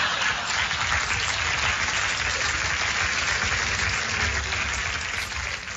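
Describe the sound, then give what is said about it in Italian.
Sustained audience applause for a writer performing on stage, a dense wash of many hands clapping at once, loud and steady for several seconds before easing slightly at the end. “È importante ascoltare anche gli applausi, la, la reazione del pubblico.”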